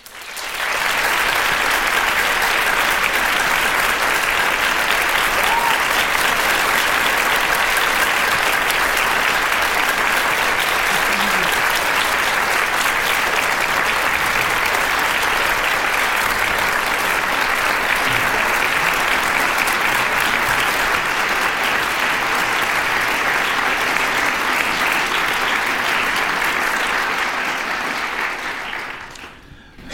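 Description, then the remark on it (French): Sustained applause from a large audience at the BNF welcoming Alan Lee to an event closing a Tolkien cycle. It is a dense, steady wash of clapping that holds at full strength for about half a minute before tapering off at the very end, with no talk over it. “Donc j'ai l'immense plaisir ce soir, euh, et pour clore le cycle Tolkien, d'accueillir Alan Lee, que je vous demande d'applaudir très, très chaleureusement.”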